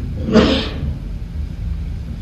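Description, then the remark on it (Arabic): A single short, sharp burst of breathy noise, like a sneeze, erupts briefly over a low steady rumble and then fades, leaving only the background hum. “رحمك الله”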